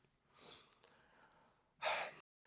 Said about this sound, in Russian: В, в, в общем, зевать придется много. Я уже зеваю. Готовьтесь, и вы тоже будете.